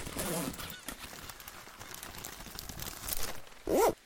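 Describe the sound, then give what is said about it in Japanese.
Steady crinkling and rustling of plastic wrapping as a kite with a Hello Kitty picture is unpacked and handled for assembly, with scattered crackles throughout and a brief vocal sound near the end. “これ、組み立てるから、ちょっと待っててくださいね。”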